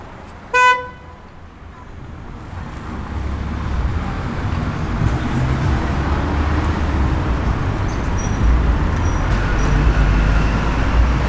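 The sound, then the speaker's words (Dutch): Busy street traffic on the Nieuwe Binnenweg rumbles steadily throughout, with a sharp car horn toot near the start and scattered higher-pitched sounds of vehicles and city activity passing. “De weg is leuk hoor, maar rumoerig.”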